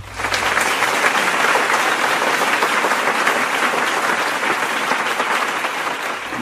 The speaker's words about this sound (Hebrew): וואו, איזה פתיח! מחיאות כפיים.